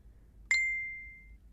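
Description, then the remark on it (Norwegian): A single bright mobile phone notification ding for an incoming message rings out sharply and fades over about a second, over a low, steady rumble like a car interior, as the driver hurries to catch a ferry. “Mobilen gir meg ikke fred.”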